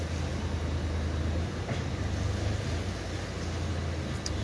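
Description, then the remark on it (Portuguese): A car's engine idles and hums low and steady, with a faint brief squeak near the end, as the driver maneuvers it into a parking spot at a Correios postal distribution center. “Peraí que agora eu tô estacionando o carro, tomando manobrando.”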